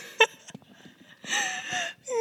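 Heavy wheezing breaths whistle through the nose, a short sharp one followed by two longer drawn-out rasps with a tonal, squeaky edge, heard alone and fairly loud.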